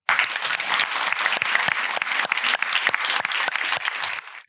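Warm applause from an audience for a poet being introduced, a steady wash of many hands clapping with sharp individual claps popping through, sustained and fairly loud for several seconds before stopping abruptly.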